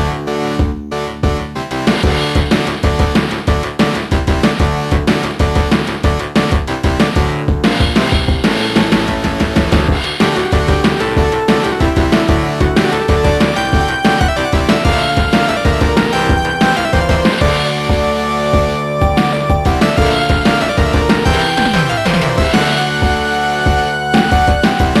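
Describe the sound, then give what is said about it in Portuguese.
Loud, busy music from the arcade version of Street Fighter II Champion Edition plays continuously with a driving, punchy beat and layered synth melodies, steady and energetic throughout with no voices. “Então vamos colocar agora do fliperama e logo em seguida vamos colocar do Mega Drive.”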